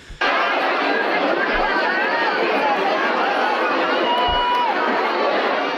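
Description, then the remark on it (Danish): A steady wash of crowd chatter from many people talking at once on a street, a constant loud murmur of overlapping voices with no single speaker standing out. “Jamen altså, øh, det, det lyder jo igen som nogle mennesker på gaden.”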